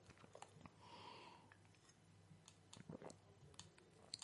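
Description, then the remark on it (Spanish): Someone takes a quiet sip of a drink: a brief soft slurp, then scattered wet mouth clicks and swallowing noises, with no talking. “Disculpad un trago.”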